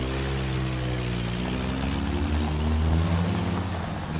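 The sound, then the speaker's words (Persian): A car engine drones steadily for a few seconds as the car drives away, a low humming rumble with a slight swell near the end, with no voices. “ماشین میره”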